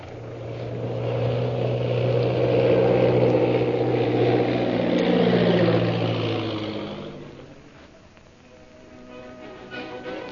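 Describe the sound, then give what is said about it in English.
An airplane engine drones loudly and steadily, then its pitch sinks as it winds down and cuts out, leaving only a faint, quiet background for the last few seconds; the plane is landing at the Purple Triangle camp in the hills bordering the Gobi Desert. “And that night, after landing his plane at the Purple Triangle camp situated in the hills bordering the Gobi Desert, Lin Pu takes his captive Lynn Chalmers to Derek Bluger.”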